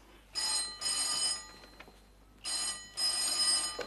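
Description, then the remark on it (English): A telephone bell rings in two double bursts, each pair of shrill, jangling rings separated by a short pause, with no voices. “All right, I'll answer it.”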